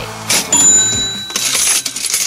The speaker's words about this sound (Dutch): Ja, dat wou ik zeggen. Hoor je het? De kassa.